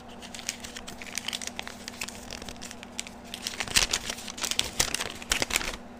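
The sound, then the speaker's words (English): A piece of paper with purple, pink and blue scribbles reading "push the button", a paper fortune teller, rustles and crinkles as it is handled in a steady run of dry, crackly bursts, growing busier and louder toward the end, with a faint steady hum underneath. “This piece of paper has a purple scribbly on it with pink and blue, and it says push the button. So I'm pushing it.”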